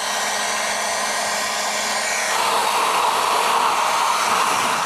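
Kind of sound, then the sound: household object, vacuum cleaner running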